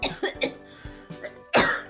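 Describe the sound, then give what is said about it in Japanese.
A run of throat-clearing coughs: several short bursts in quick succession, ending with one louder, harsher cough. No speech. “おかしくって咳払いすなごめんなさい”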